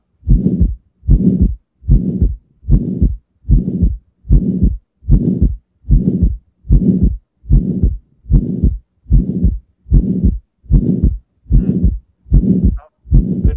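A tricuspid heart murmur heard through a stethoscope: steady, evenly spaced low whooshing beats, about one and a half per second, loud and continuous with no talking.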